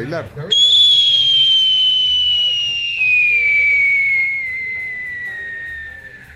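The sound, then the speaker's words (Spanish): A loud, piercing whistling firework shrieks for several seconds, its pitch sliding slowly downward as it fades, with faint background noise underneath. “No a los silbadores, sí a Fuegolandia.”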